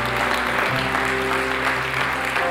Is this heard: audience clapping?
yes